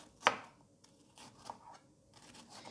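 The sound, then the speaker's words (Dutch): A knife slices cabbage into thin strips, as finely as possible, starting with one sharp crisp cut, followed by a run of softer, irregular crunchy slicing strokes. “En ik begin, ik heb dus nu de, de kool in eh, dunne reepjes aan het snijden.”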